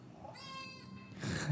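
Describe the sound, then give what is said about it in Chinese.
A single drawn-out, tonal cat meow played by a phone app that translates a person's spoken words into cat sounds, steady and fairly high-pitched, followed by a brief breathy, noisy burst at the end. No one speaks. “你看它它等一下猫叫的声音，就是它我我人讲的话，然后它翻译成猫叫的声音，这样子、 嗯 也蛮好笑，蛮好笑的。”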